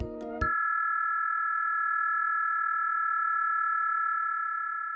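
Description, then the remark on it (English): A brief burst of clattering noise gives way to a single steady electronic tone at around 18,000 to 20,000 hertz, on the edge of human hearing, carrying data transmitted over sound; it holds at an even, fairly loud level for several seconds, fading slightly at the end. “just on the edge of human hearing at around 18,000 to 20,000 hertz, data is being transmitted over sound.”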